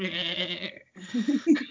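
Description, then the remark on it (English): A person's voice mimics a goat, giving two wavering, nasal bleats separated by a short gap, close and fairly loud with no other sounds. “or else you turn into a goat.”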